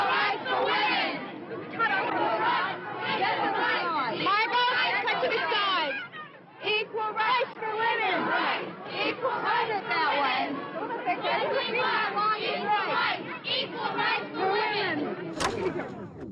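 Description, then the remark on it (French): A large crowd of women on a feminist march chants the slogan "Equal Rights for Women" over and over, loud, their massed voices rising in steady repeated bursts with only a brief dip partway through. “On entend le mot d'ordre scandé sans cesse par toutes ces femmes.”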